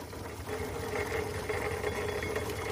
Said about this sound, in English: This week, … and I are aboard a Foden steam wagon chugging around the Museum of Technology here in Cambridge. Now, it is a scaled down model of a wagon, and this site is the old sewage pumping station in Cambridge.